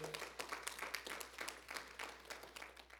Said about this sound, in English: Come on, let's give the Lord a hand clap of praise this morning.